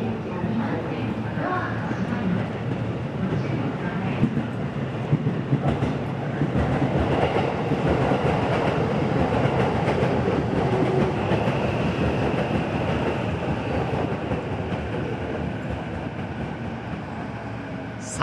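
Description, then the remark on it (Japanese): A Yamanote Line commuter train rolls past on the rails at a level crossing between Komagome and Tabata, a steady loud roar with rhythmic clickety-clack of wheels over track joints, filling the scene continuously from start to finish. “やっとこの山手線のある一つある踏切に出会うこともできてね僕らかなり満足なんですけれども”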